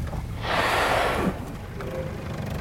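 A single powerful, breathy whoosh of a blue whale exhaling through its two giant blowholes as it surfaces about 60 metres away in front of a boat, a broad rushing burst lasting under a second over a low rumbling background, loud.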